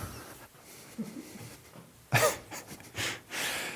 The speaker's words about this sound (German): Man hört dich jetzt atmen und laufen, Vater.